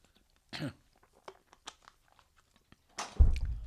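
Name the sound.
cough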